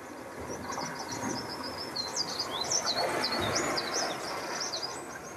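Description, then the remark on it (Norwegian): A dense chorus of a flock of some 40,000 birds lying out on the water, all calling at once, a continuous overlapping wash of high chirps and whistles with a steady broad rumble beneath. “Det er en dag hvor det ligger et flak på 40 000 fugl utpå vannet.”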